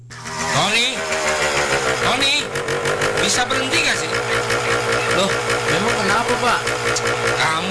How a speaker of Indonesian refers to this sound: Pagi-pagi sudah menghidupkan motor sambil digas-gas. Berisik tahu? Maaf kalau keberisikan, Pak.